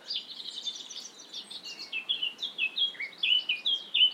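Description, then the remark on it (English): A blackcap sings alone, a quick scratchy warble that breaks into a loud run of clear, evenly spaced whistled notes near the end. “That loud and quite mechanical sounding song is the blackcap.”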